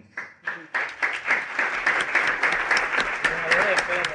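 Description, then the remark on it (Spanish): An audience in a hall breaks into sustained applause for the women of faith present, many hands clapping together in a dense, steady roar that builds quickly after a brief start and holds fairly loud throughout. “Doy gracias a Dios por las mujeres de fe en este salón. Un aplauso para ellas.”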